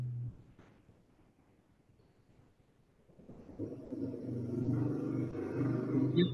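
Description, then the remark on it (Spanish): A motorcycle passes outside, starting faint after a few quiet seconds and swelling into a loud, rumbling engine roar as it draws near, with no talking. “Hay una moto pasando afuera”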